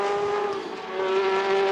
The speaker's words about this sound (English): And as we say that, that car actually pulling in towards the pits.